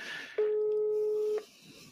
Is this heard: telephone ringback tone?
yes